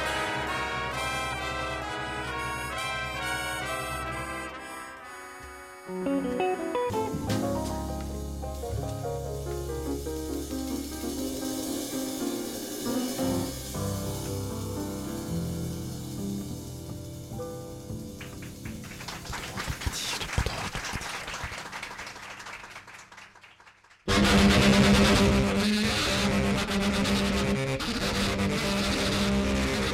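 A loud, dense free jazz octet plays in a 1968 recording, with wailing, overblown horns including tenor saxophone and clattering drums, starting on held tones, growing chaotic, then erupting into a harsh, noisy blast near the end.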